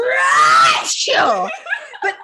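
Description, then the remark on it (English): A voice loudly imitates the speaker's own usual sneeze, which sounds like an 80-year-old man's, starting with a strained, wheezy buildup, then a brief catch and a descending groaning trail. “I was so caught off guard by the fact that I was sneezing because on a normal day, I sound like an 80 year old man that's like,”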